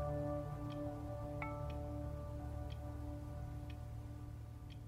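Faint, sharp clock ticks sound about once a second over a steady low hum, with no voices.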